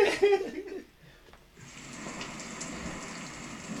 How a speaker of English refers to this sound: I'll wait till I wait till the rain chill out, you know.